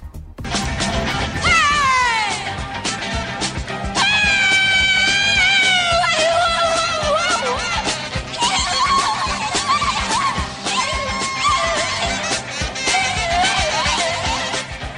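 A woman's voice wails and shrieks in wavering, bending cries that sound like an animal's calls, sustained and loud over a dense, busy musical backing.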